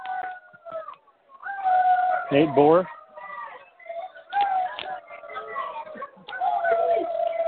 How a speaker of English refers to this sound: Now it's Medina, and you hear the howls coming from the Medina faithful. Because Wolf had the ball.